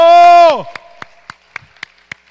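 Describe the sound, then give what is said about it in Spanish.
Congregation applause in steady unison, given as praise to the Lord during a church sermon: about seven evenly spaced, crisp claps, following a sustained tone that slides downward and fades out. “Dar un aplauso al Señor entonces por esto.”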